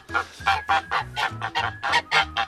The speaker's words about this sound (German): Jetzt sind hier die drei Moneypenny. Gänse.